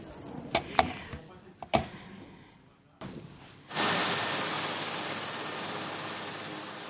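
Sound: helicopter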